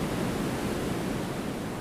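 A steady, dense roar of rushing water from a thundering waterfall pours on without pause, loud and unbroken with no voices.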